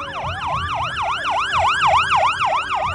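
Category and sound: vehicle, ambulance siren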